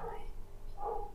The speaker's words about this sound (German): das ist ein Hund, okay. Ich habe zwischenzeitlich gedacht, dass mein Kind wach wird. Nein, das ist ein Hund.